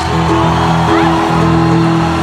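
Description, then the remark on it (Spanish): An audience at a Viva México conference applauds and shouts joyfully for Jesus, loud and continuous, with held musical tones sounding steadily underneath the crowd noise. “Vamos a Viva México, démosle fuerte ese aplauso a mi Jesús. Que se escuche fuerte ese grito de júbilo en el reino de los cielos.”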